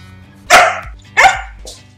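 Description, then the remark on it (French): A small dog, Ginette, barks twice, sharp and loud, about two-thirds of a second apart, then gives a softer, shorter yap after being told to say goodbye. No one speaks. “Gigi, dis au revoir.”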